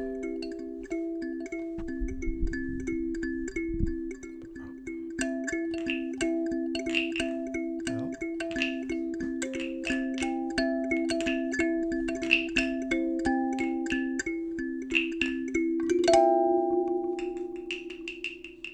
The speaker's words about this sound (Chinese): OK，刚大家听到的就是这个拟态的蛙鸣，以及一个一个这个叫做什么手手、 欸、拇指琴， 拇指琴 卡林巴， 卡林巴， 哎，它也是西非的乐器，这样就是跟那个阿萨阿头一样啊。据称说卡林巴在西非就是哄小孩睡觉的时候使用的这样子。哦，对对对对，听起来其实很像音乐盒。